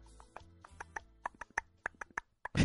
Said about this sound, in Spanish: Güey, ¿cómo habrán grabado el caballo ese? Para meterlo al estudio, a ver, haber estado bien cabrón, güey. Grabaron en la calle, güey.